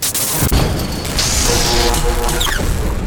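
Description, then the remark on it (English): A loud aircraft crash on ice: a heavy impact as the plane's left wing digs into the ground, then continuous grinding, rumbling and metallic scraping as the plane flips, rolls end over end and slides, crushing a chain-link fence, with a shrill screech near the end. No one speaks. “What was left of the ship's left wing dug into the ground causing the Condor to flip and roll end over end, out of control, sliding until.”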